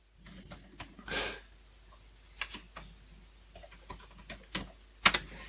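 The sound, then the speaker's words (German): Irregular clicks of a computer mouse or keys as someone clicks through a book on a computer, quiet and sparse, with one sharper click near the end and faint breathy noise in between; nobody speaks. “Ich ähm, klicke mir hier gerade in diesem Buch durch.”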